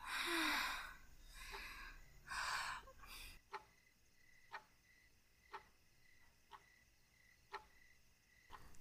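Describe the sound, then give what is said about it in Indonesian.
Heavy, breathy gasps fill the first few seconds, then a clock ticks alone at a steady one-per-second pace, each tick crisp and distinct against a quiet background. “Bunyi suara detak jarum jam kembali terdengar, mula-mula jauh, untuk kemudian makin lama makin terdengar jelas.”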